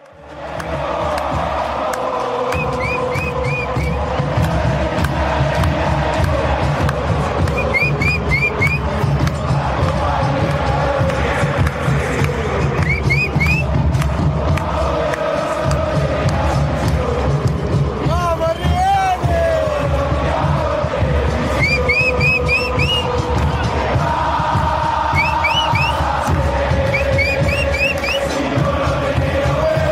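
A huge crowd of football fans sings a club chant together, loud and unbroken for the whole stretch, backed by steady thumping drums and scattered high whistles.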